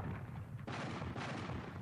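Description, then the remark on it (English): Loud cannon fire: heavy booming blasts, a sharp one near the middle and another soon after, rolling into a dense, continuous rumble of battle with no voices. “At that moment, there was a great sound of cannons.”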